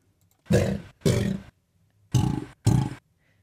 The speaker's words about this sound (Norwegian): dere skal få høre denne lyden to ganger. Først så hører dere to sånne rar, rar, og det er vanlig. Ok. Og så rett etterpå så kommer det to sånne rar, sånne brøl, med eh, helium.